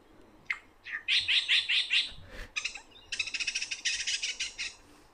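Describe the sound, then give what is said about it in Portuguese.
A lyrebird sings alone, a rapid, changing medley of calls imitating other bird species, shifting from repeated bright whistled notes to a fast, buzzy trill. The song is clear. “É só barulhos diferentes do mesmo pássaro.”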